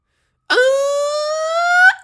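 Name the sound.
ambulance siren passing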